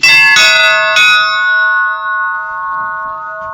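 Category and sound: signal or alarm, large church bell ringing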